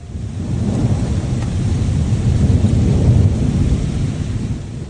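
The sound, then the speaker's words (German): Tennis-ball-sized hailstones pound onto cars on a country road in Upper Bavaria during a storm, in a dense, relentless barrage so forceful that rear windows shatter, countless impacts merging into a loud, rumbling roar that holds steady throughout, with no voices. “Tennisball große Hagelkörner donnern auf die Autos.”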